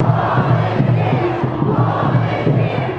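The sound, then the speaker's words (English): A large, noisy crowd outside the Supreme Court on the day of arguments over the revocation of DACA, many voices shouting and chanting together in a dense, continuous roar, with rhythmic pulses of chanting rising above the steady din. “Another noisy day outside the Supreme Court.”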